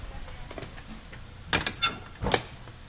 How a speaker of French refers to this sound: Après plus de 40 minutes de rangement minutieux, il peut enfin fermer son camion et partir.